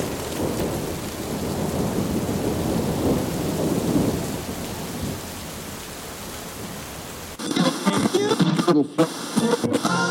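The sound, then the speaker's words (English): A deep, rolling rumble of thunder swells over a steady wash of heavy rain for several seconds, then cuts off abruptly as a voice or other sound takes over. “standing there in the eye of the storm.”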